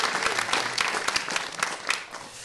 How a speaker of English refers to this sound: Please let us give him a round of applause.